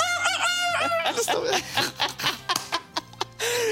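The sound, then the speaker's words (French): A person does a brief, strained imitation of a rooster's crow, a single rising and falling call, followed by a burst of laughter and breathy chuckles. “Allez, je fais l'animal, je, je sais faire le coq.”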